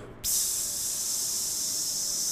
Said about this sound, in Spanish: Y ahora sí te lo mandan con el sonido de la freidora o Con un sonido de freidora, ajá.